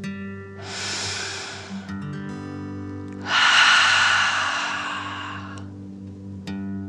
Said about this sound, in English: Before we begin our story, let's take three deep dragon breaths and relax. Breathe in through your nose, filling up your belly, and then out through your mouth, imagining you are breathing fire. Ready? Deep breath in and out.